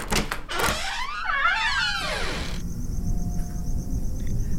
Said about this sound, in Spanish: Así que temeroso y aterido de frío, abrió cautamente la puerta.